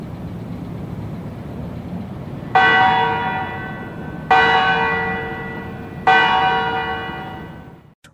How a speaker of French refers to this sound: Alors, c'est les cloches euh, de la tour centrale du Parlement qu'on entend,